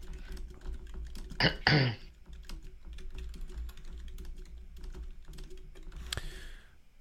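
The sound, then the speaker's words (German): Steady clicking of someone typing a message on a computer keyboard, fairly quiet, with irregular keystrokes throughout and a couple of louder bursts like throat clearing or coughs early on. “Gut, dauert einen Moment zu tippen.”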